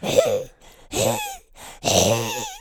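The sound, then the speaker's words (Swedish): A person imitates their own heavy, labored breathing: three loud, strained breaths with a groaning, voiced edge, each about half a second long, separated by short pauses. “Min andning är inte härlig att lyssna på”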